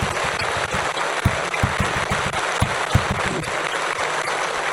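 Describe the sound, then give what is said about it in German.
Steady applause from a crowd in a recording being edited, a dense wash of clapping with individual claps popping out irregularly, holding at an even loudness for the whole stretch with no voices. “So, da geht der Applaus weiter, ich gehe nach vorne.”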